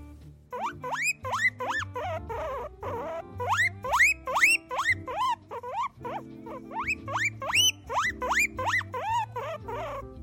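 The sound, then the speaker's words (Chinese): A pet guinea pig squeals excitedly, as it does when its owner talks, in a long run of loud, high, rising whistle-like cries, repeated rapidly in bursts with short pauses, over a low rustling background and no talking. “然后我讲话的时候，他又会很兴奋的尖叫，然后他的尖叫声又很大声，也没有到超大声，但是从房间外面就听得到，他的叫声就是这样的声音。”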